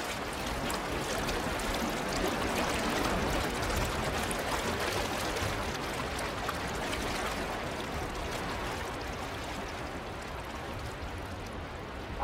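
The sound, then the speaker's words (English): A fast stream of white water rushes steadily and loudly, a dense continuous wash of splashing and churning with no voices, holding an even level throughout. “White water here sings”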